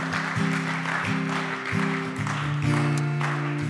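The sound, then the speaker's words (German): An audience claps steadily in a dense, continuous wash of applause for the people who made a decision that morning, while sustained low keyboard chords play underneath throughout. “Lass uns noch mal einen Applaus geben, einfach auch für die Leute, die diese Entscheidung getroffen haben heute Morgen.”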